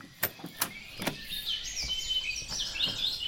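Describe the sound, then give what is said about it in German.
Birds chirp and warble continuously in a forest, heard from the small balcony of a treehouse among the trees, a high layered chorus, with a few sharp clicks and knocks near the start and no one talking. “Die Vögel singen.”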